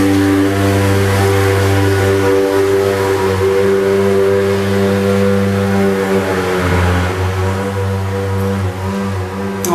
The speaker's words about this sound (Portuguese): Tá passando o carro da fumaça aqui na minha rua.